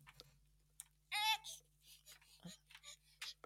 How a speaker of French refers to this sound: Alors j'ai mon bébé qui se réveille. c'est mignon.